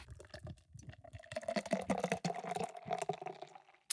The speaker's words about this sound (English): You know, in, in order to get this actual Foley sound mm-hmm. of me pouring the Guinness. You really have to pour it the most improper way. Yeah, like think about let glug out kind of.